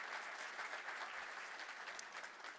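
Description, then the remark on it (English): A church audience bursts into steady, dense applause for the Lord, many hands clapping together at once in a loud, continuous wash with no voices standing out. “Come on, give the Lord one more hand clap around the house.”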